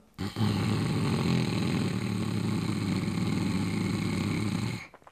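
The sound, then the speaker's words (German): One long, steady snoring sound made on an inhale as part of a breathing exercise, a rough rattling drone that holds for about four and a half seconds before cutting off. A person produces it deliberately rather than asleep. “Jetzt beim Einatmen erzeuge diesen Schnarchklang.”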